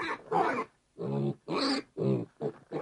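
Charlie the pig grunts and oinks in a quick run of about six snorting bursts separated by short pauses, fairly loud and with no talking, as he trots up to a grumpy farmer at sunrise.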